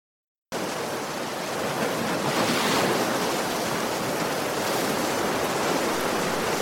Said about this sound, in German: Wir möchten nach Mar del Plata hin. Was für einen schönen Strand! Man kann die Welle von den Ozean hören.